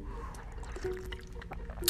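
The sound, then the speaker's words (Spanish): Someone takes a few small sips of water, with soft liquid trickling and faint swallowing noises over a low background hum, and no talking. “Ah, perdón, estoy tomando un poquito de agua”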